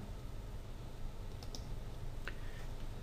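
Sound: computer keyboard key presses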